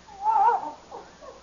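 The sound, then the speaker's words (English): A dog whimpers: one drawn-out, wavering high whine, then two shorter, softer whimpers, with no talking. “that's quite a dog you got.”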